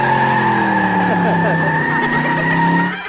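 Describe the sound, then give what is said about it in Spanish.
A voice imitates tires screeching as someone drives off burning rubber, a sustained, strained, tonal squeal that holds steady for about three seconds before trailing off, loud, with no other sounds around it. “Ah, Oye, y me iba yo quemando llanta.”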